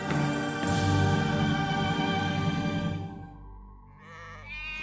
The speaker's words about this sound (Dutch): Er zijn een heleboel schapen Nee, nee. En er zijn mannen die op de schapen passen. Herders.